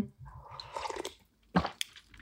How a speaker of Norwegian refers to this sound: Og hvis det er sånn at du er veldig allergisk mot slurpelyder, så er jeg en mester på å slurpe når jeg drikker varme drikker. Mm. Det er bare så utrolig godt.